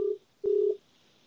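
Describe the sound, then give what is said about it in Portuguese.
Two short bursts of a steady, mid-pitched telephone ringing tone while placing a call, separated by a brief pause, heard through a phone on speakerphone. No one is talking. “Tá dando tá pra ouvir, né?”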